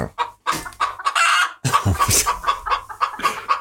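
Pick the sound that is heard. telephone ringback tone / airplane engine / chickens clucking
chickens clucking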